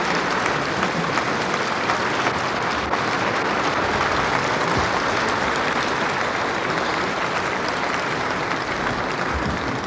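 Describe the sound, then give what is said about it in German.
Steady, dense applause from a large audience fills a hall as the festival speaker Fritz von Unruh gets up again, loud and continuous for the whole stretch with no voices breaking through. “Der Beifall rauscht auf.”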